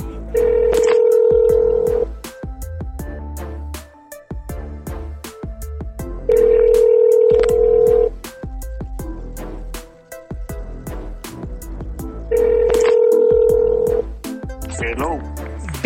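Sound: telephone call ringing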